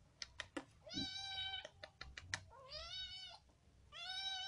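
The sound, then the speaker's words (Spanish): A cat meows three times in drawn-out, rising-and-falling cries, fairly loud, with quick keyboard-like clicks tapping at the start and between the first calls. “¿Qué quieres, pequeña? ¿No ves que estoy grabando un poquito?”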